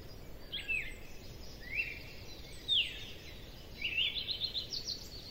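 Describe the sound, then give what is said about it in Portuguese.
A cardinal sings from a cedar branch on a farm in the Serra Gaúcha, Brazil, in the morning, a series of short, sweeping whistled phrases spaced about a second apart, quite clear against a soft steady outdoor hiss. No one speaks. “Quem nos saúda no galho de um cedro é um simpático cardeal, uma das aves típicas da região.”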